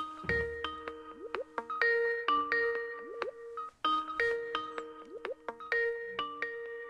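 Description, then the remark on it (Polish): A phone ringtone plays over a speakerphone, a bright electronic melody of chiming notes repeating in a steady looping phrase, fairly clear, with no voices. “Ale to ja dzwonię. A ty dzwonisz, okej.”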